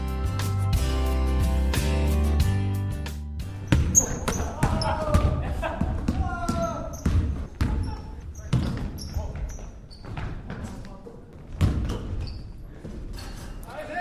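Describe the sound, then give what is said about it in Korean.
A short musical phrase gives way to a basketball bouncing repeatedly on a hard court, the thuds loud and irregular, with high sneaker squeaks and faint voices around them. “어, 오늘 시작하기 전에 이제 공소리가 들려요.”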